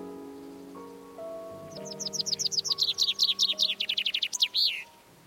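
A bird sings a rapid series of bright, repeated high chirps, starting softly and building to a louder trill, over a faint background hum with no talking.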